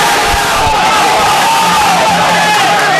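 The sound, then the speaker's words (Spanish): A group of men shouting together in a loud, sustained burst of rallying cries, the Valencia football team's pre-match motivational shouts before a home match, with overlapping voices and a continuous roar of noise. “Ahí están los gritos de automotivación del Valencia de Fútbol antes de pues saltar ese partido de las nueve y media que arranca en nada, Víctor.”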